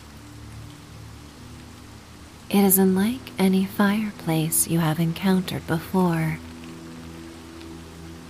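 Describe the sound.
Steady rain hisses evenly through the whole stretch on a stormy night, a soft constant wash of noise, while a calm voice speaks a single sentence over it in the middle.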